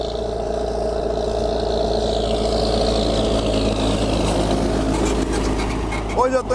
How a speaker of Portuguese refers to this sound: deixa eu passar o trator aqui. Trator.